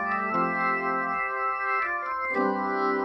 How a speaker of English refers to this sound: Now, the actual sound comes from the horns spinning or rotating. So if you, you notice how it sounds, so it, it kind of sounds like this.